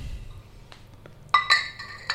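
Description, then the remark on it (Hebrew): Glasses clink together in a toast with a few bright ringing taps. A couple of softer knocks come just before them and a faint chime trails after. “לחיים. לחיים.”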